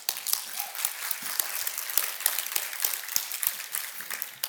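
An audience applauds with dense, steady clapping that keeps a bright, crackling texture throughout, many hands overlapping without a clear rhythm.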